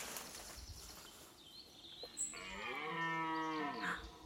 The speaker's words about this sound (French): C'est un combat de cerfs. J'aimerais bien voir ça. Ce sont des luttes spectaculaires, mais tu ne peux pas y assister.